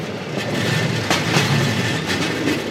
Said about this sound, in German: Und im Tunnel merkt man erst, wie laut das Fahrzeug ist. Die Schwellen und Gleisabschnitte schlagen im Takt, wie im Zug.